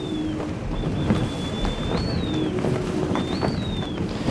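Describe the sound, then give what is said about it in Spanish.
Wind howls through the rigging of the sailing ship Juan Sebastián Elcano, sailing in a fresh wind while crossing the Strait of Gibraltar: thin, high whistling tones waver and slide up and down over a constant low, blustery roar of wind buffeting the microphone. “el ulular del viento de las jarcias.”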